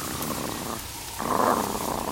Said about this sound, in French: un ronronnement. Un chat en pleine savane hmm, Non, ça ressemble plutôt à un grognement. Ah mais oui, c'est le guépard.